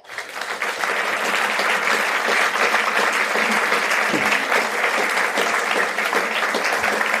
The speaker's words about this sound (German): Riesenapplaus für Andreas Jäger.